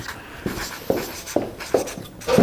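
A pen scratches out a signature in a series of short, brisk strokes, fairly quiet, with a brief pause before a final longer scribble.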